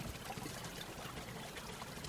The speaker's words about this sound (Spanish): Subyugados por el murmullo de las aguas, y el canto de los pájaros,